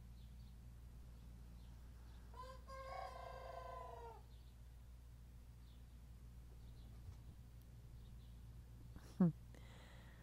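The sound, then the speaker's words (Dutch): A young rooster gives one strained, wavering attempt at a crow lasting about a second and a half, later followed by a brief sharp squawk, all over a steady low background hum. “Wat je nu hoort is onze jonge haan.”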